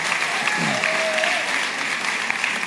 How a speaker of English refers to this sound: Can we give it up one more time for our small group leaders today?